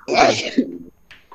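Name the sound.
a person sneezing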